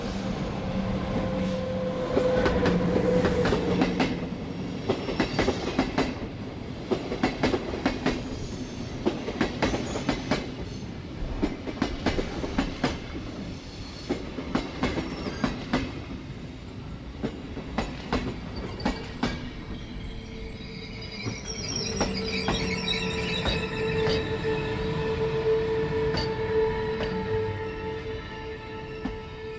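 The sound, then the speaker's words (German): A long train rolls toward a station with steady wheel clatter over rail joints, the clacks spacing out as it slows, ending in high, sustained brake squeals. No one speaks. “Es ist jetzt natürlich, das war wunderschön, die Verlangsamung zu hören, weil es ein langer Zug ist, der nicht im Bahnhof drin erst zum Halten kommt”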